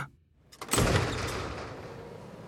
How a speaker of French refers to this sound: Musk pousse les portes et fait irruption dans l'usine